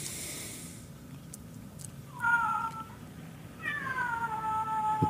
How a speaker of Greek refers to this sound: Και μια γάτα ακούγεται.